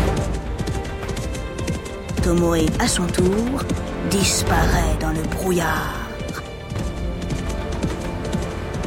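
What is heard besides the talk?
horse galloping hooves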